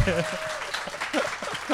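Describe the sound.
An audience claps steadily in welcome, a dense, even patter of applause, while voices speak and exclaim over it.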